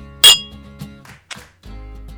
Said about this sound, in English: So, with that, we're going to cheers Sketchbook and Malteurop. Thanks for helping us out on this, and you guys for tuning in. Cheers. Cheers.